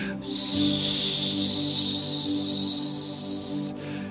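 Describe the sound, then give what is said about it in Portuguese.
A voice imitates a balloon deflating after being pricked with a little pin: one long, steady, fairly loud hiss of about three and a half seconds, with a faint voiced buzz beneath, fading out abruptly at the end. “E agora Jesus derrubou todos os seus castelinhos de areia, pegou o balão, o, o alfinetezinho, fez assim no seu balãozinho.”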